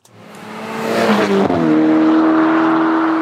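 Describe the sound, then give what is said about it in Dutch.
A Ferrari GTC4 Lusso T sports car engine revs up with a rising, rasping roar, then settles into a loud, steady drone that holds through the end, with no talking. “Ja, en zo meteen hebben we Jeroen Mul, coureur bij Lamborghini. En ik rij in een concurrent, hè? Ja, een Ferrari GTC 4 Lusso T.”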